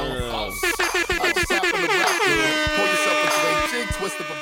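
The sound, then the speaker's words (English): A loud, blaring air horn sound effect blasts repeatedly in quick succession, its harsh stacked tones sustained and layered over one another for several seconds, dominant. “Uh, Let me get some air horns from over”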